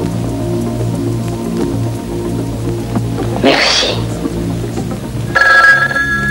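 telephone ringing

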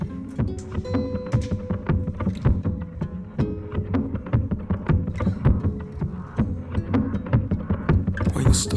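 song intro playing

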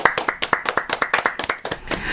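audience clapping

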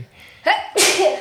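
sneeze

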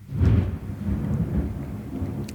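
thunder

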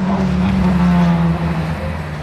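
car passing

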